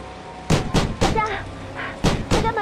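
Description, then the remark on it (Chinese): Loud, hard knocking on a door: three quick raps, a short pause, then two more, with a faint voice murmuring in the gap between the groups. “林子，别敲了。 小夏，快开门啊！”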